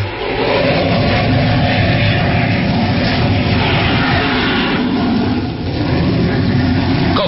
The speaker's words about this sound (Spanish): el jet se lanza en picada hacia el océano. El motor deja una estela luminosa, dando el aspecto de un cometa que se precipita al mar.